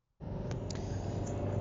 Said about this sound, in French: Euh, donc là, je suis désolée pour le bruit euh, de la voiture. Euh, je suis encore en mouvement. On n'arrête pas de bouger en ce moment.